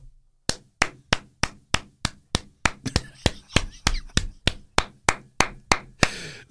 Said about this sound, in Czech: Dlouhý, dlouhotrvající potlesk.